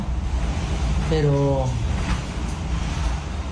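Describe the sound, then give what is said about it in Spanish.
A steady, loud roar of howling hurricane wind fills the whole recording, constant, while a voice briefly speaks a word over it. “El sonido del huracán es horrible.”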